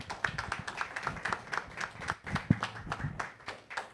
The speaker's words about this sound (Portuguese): Dê mais uma salva de palmas para o Senhor, amém?